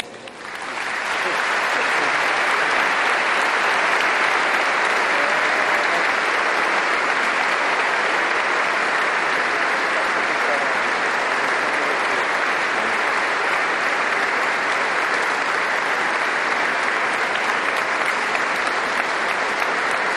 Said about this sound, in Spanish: Bueno, pues un largo aplauso refrenda esta larga homilía también del Santo Padre